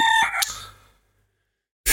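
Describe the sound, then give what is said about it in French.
A rooster crows loudly, a single harsh call that fades out after about a second, followed by silence and then an abrupt burst of noise at the end. “Vous pouvez le tenir, votre coq Oui.”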